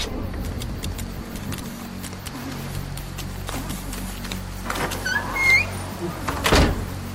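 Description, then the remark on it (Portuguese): A heavy warehouse door scrapes and slams shut with a loud metallic clunk near the end as it is locked, followed by rattling latch sounds, all over a low, steady rumble with no voices. “Assim que o último prisioneiro deixa o lugar, Michael tranca a porta, deixando o atirador preso lá dentro, amordaçado e com o braço quebrado.”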